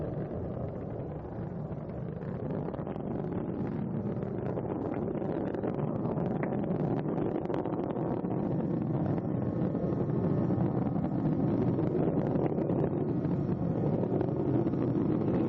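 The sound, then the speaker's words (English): The three liquid-fuel main engines of space shuttle Atlantis roar in a deep, continuous rumble during launch as they rev up before throttle up, loud and steady with a slight swell, heard alone without voices. “Engines now revving up, standing by for the throttle up call.”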